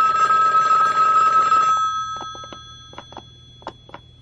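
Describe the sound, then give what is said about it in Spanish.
The second line of a telephone rings loudly for about a second and a half, then cuts off, leaving a low hum and a few faint clicks and taps. “Suena la otra línea del teléfono.”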